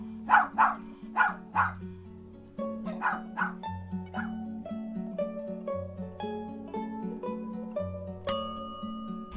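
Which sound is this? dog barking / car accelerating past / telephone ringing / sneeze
dog barking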